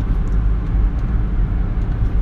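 Steady low rumble of a car driving on the road, heard from inside the vehicle as a continuous droning road noise with no voices.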